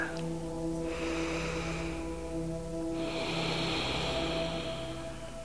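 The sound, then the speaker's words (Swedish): A slow, deep breath drawn in through the nose, followed by a second longer, stronger airy breath, both fairly soft over a steady low humming drone, with no talking. “Lyft på mungiporna och känn hur du andas in en positiv känsla.”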